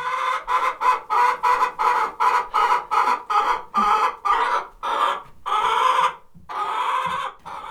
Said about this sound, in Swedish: Det var tuppar som mätte sina förmiddagsgal med varann.